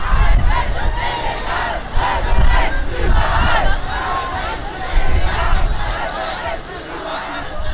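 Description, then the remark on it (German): A large crowd at a demonstration against racism and deportations on Potsdamer Platz cheers and shouts loudly and continuously in stormy weather, many voices overlapping in a dense roar with repeated surges of yelling and chanting. “Ja, eine stürmische Stimmung am vergangenen Donnerstag auf dem Potsdamer Platz und damit ist nicht nur das Wetter gemeint.”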